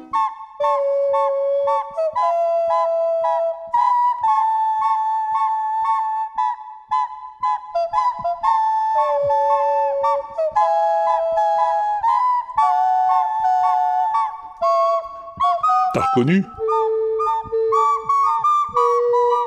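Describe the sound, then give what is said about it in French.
A song melody performed as nasal music: a thin, reedy, whistle-like tone moving through sustained steady notes, with a sharp upward squeal near the end, unaccompanied and without any talking. “une des musiciennes les plus productives du tube en matière de musique nasale.”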